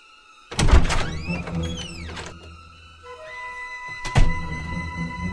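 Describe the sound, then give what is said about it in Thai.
A door swings open: a solid latch clunk, a long drawn-out creak of the hinges, and then a second heavy thud a few seconds later, with no voices. “คุณยายเปิดประตูให้หนูหน่อยสิคะ เจ้าหมาป่าเลยได้ร้องตอบเจ้าหนูน้อยหมวกแดงไปว่า เปิดประตูเข้ามาสิจ้าหลานรัก”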